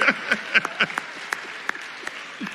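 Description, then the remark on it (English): A crowd in a church applauds with a dense, steady patter of clapping, individual sharp claps popping out above the wash, moderately loud throughout the short burst. “we appreciate your applause.”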